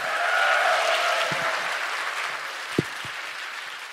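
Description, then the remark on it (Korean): An audience applauds to welcome a show member as he is introduced, in a dense, steady wash of clapping that eases slightly over four seconds, with a few sharper individual claps standing out near the end. No one speaks. “다시 한 박수 부탁드립니다.”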